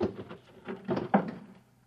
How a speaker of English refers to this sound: So the searchers figure out a way that they can get them alone in a hotel room. Shove a chair under the door now